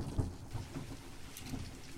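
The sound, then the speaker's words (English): Steady rainfall hisses across the whole stretch while low thunder rumbles underneath, with a deeper bump early on. The storm sounds fairly soft, and no one speaks. “It was a dark and stormy night when I received a call about a series of bizarre disappearances.”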